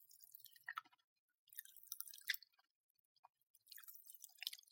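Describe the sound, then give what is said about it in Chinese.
Popping candy crackles and fizzes in a mouth: three bursts of dense, sharp, high-pitched crackling with brief silences between them, fairly quiet, with no talking. “听见吗？认真的跳跳糖啊！”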